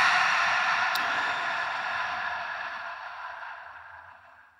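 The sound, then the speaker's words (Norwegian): A long, steady breath blown out through the mouth to let go, after a deep breath from the lower belly, a soft airy whoosh that gradually fades over several seconds, with no talking. “Og puster ut gjennom munnen og gir slipp.”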